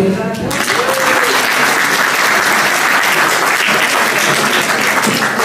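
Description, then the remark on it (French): A loud, steady burst of audience applause for a woman active in the community's consistory and her son, a rabbi, many hands clapping in a dense continuous patter that swells up after a brief moment of voice at the start and holds for several seconds. “On le l'applaudir.”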